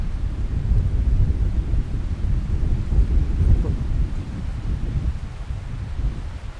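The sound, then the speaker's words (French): Strong mistral wind roars and buffets directly against a microphone held out toward the wind, a continuous heavy low rumble with gusty surges lasting the whole time, loud, with no voices. “C'est beau d'entendre le vent. J'espère qu'on entendra le vent.”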